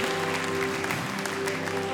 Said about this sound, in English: Can we give those people who raised their hand a great clap of encouragement? So good, so good. Come on, let's keep clapping. Let's keep encouraging them.